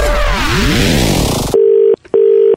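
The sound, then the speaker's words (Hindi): A loud, swirling whoosh of sweeping tones gives way to a telephone's outgoing call tone: two steady, even beeps with a short break between them, heard clearly with no one speaking. “मैंने कहा मैं फोन लगा के भाई साहब को यही समझाऊंगा उनके मजे लूंगा कैसे लिए ऐसे”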